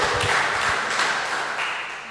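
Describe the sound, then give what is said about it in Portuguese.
A church audience applauds for a choir, a dense, steady wash of many hands clapping that holds for about two seconds and then eases off slightly toward the end. “Uma salva de palmas para esse coral maravilhoso.”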